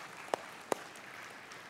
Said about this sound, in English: Yeah, we're clapping for the kingdom of God right here.